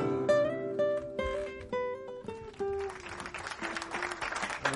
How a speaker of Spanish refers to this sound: Hay aplausos, aplausos.